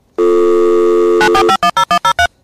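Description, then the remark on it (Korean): A dial-up modem handshake, from the device that converts signals for data transmission: a steady harmonic tone for about a second, then a harsh warbling burst followed by a rapid series of short, evenly spaced electronic chirps. Loud, no voices. “모뎀 연결 소리입니다.”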